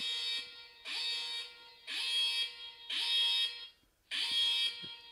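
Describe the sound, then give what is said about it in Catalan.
A harsh, buzzing home alarm tone blares through a mobile phone in five repeated bursts, each about a second long with short gaps between, loud with a thin electronic quality like a phone speaker. “M'ha començat a sonar el mòbil, xaval. És l'alarma de casa.”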